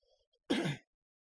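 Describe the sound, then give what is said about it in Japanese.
A single short, gruff throat clearing, fairly loud, lasting about a third of a second against an otherwise quiet background. “ちょっと咳払い失礼します。”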